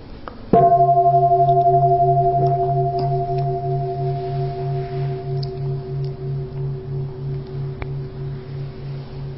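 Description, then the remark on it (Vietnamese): A large temple bell is struck once by a man, giving a sharp onset followed by a long, steady ringing hum with a slow, pulsing waver that fades gradually over several seconds. “nhiều khi mà có người thỉnh chuông mà mình cũng nói phiền não nữa mình im vậy thôi chứ cái anh chàng này hôm nay sẽ thỉnh chuông không có được trong mà được ngân lắm”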